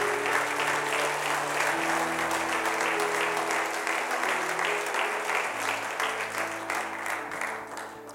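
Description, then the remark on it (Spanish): A crowd applauds Casa de Bendición steadily for several seconds, a dense wash of clapping over a sustained musical tone, fading slightly toward the end. “¿Por qué no le das un aplauso a Casa de Bendición?”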